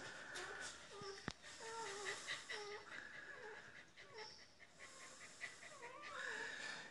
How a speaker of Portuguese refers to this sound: Hoje já estou um pouco mais animado e comecei o áudio gravando para vocês aí o, o som dos cachorrinhos gemendo. Voltei aqui para perto deles.